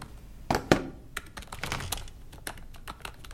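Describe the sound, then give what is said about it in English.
Rapid, irregular clicking of laptop keys as someone types on a laptop while walking, fairly quiet, with a couple of heavier key strikes near the start; no voices. “Why are you typing on a laptop whilst walking?”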